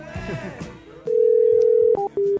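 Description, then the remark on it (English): A phone call being placed: a steady electronic line tone holds for about a second, then a couple of short clipped beeps follow, loud, after a brief muffled voice at the start. “I'm calling again.”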